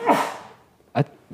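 A dog barks twice, a loud broad first bark with a decaying tail, then a shorter sharp second bark about a second later.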